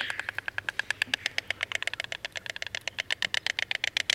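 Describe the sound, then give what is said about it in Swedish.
A white stork's rapid, dry bill clattering at its nest, a fast steady rattle of wooden-sounding knocks continuing for several seconds, over a faint low rumble in the background. “Ja, det här klappret så hör man när fåglarna är på boet.”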